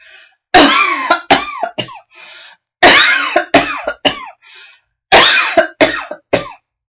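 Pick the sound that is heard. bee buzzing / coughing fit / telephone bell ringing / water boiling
coughing fit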